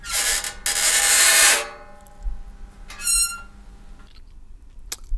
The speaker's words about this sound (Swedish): Och jo, det var jag som har spelat in mitt eget elskåp. Jag har ett elskåp i min lägenhet och eh, när man öppnar det så knarrar det en hel del. Eh, jag vet inte om det ska låta så, men det är så det fungerar.